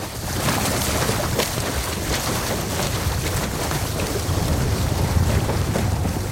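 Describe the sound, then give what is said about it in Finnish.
Strong wind roars steadily across the microphone while waves wash and splash against a moving sailboat on the Archipelago Sea after leaving Aspö, under a strong wind warning, with wind rising to 12 metres per second and waves building; a loud, continuous rushing with no voices. “Lähdettyämme Aspöstä tuuli yltyikin 12 metrin sekunnissa ja aallokko nousi.”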